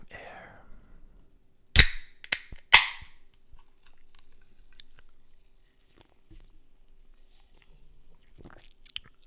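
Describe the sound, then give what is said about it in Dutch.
A can of cola is cracked open: a loud sharp snap of the tab, a smaller click, then another bright burst of fizzing hiss, with quiet faint rustles before and after. “Maar ik ga nu wel even een blikje openmaken. ASMR.”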